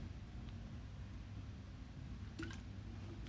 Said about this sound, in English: I drink some of my coconut water.